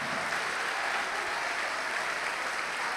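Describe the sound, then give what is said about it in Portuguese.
Steady, dense applause from a crowd at a religious gathering in Rio de Janeiro, clapping for the Bible as the word of God. Many hands clap continuously at an even level for the whole stretch, with no voices standing out above it. “A melhor salva de palmas que já se ouviu em todo o Brasil e em toda a terra.”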